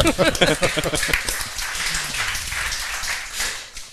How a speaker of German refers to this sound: Bravo, dafür schon mal einen Applaus.